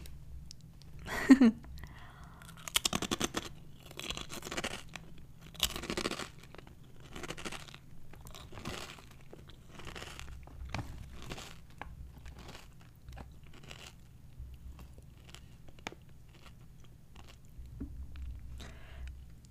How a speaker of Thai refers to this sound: ตะกี้นี้ก็คือระหว่างที่เคี้ยวไปเคี้ยวมาแล้วก็พลิกดูตัวแพคเกจจิ้งรู้แล้วว่าไอ้40% less fat เนี่ย เขาเทียบกันกับ regular potato chips ก็คือมันฝรั่งทอดทั่วๆไปอะค่ะ